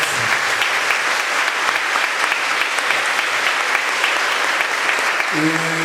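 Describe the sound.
A large crowd claps steadily and loudly for several seconds for the mothers on Mother's Day, a dense, sustained wash of applause that holds at even strength, with a faint voice or tone surfacing near the end.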